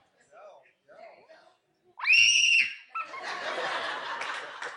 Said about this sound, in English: And start screaming as loud as you can. Scream loud, son! Do it again! Come on, you're not going to get in trouble. Yeah, come on, do it again.